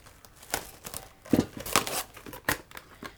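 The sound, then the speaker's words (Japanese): Plastic wrap crinkles and tears as it is pulled over a heat-resistant, microwave-safe container holding a little water, a quiet run of sharp, irregular crackling bursts with no one talking. “えっと、水を軽く大さじ2から3ぐらいですね入れますで、えっと、ここに、えっと、ラップをかけて”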